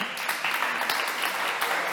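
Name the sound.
audience applause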